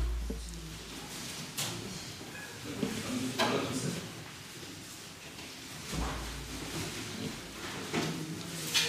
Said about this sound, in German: Okay, und schließen die Tür.